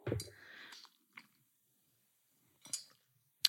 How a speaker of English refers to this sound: Oh, gee, I'm going to have a quick sip of cough ones. Can you hear my little straw?